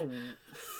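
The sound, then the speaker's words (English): A dog gives a brief, faint whimper that slides downward, then a breathy snort or snuffle, all within under a second. “Oh no, that's my dog.”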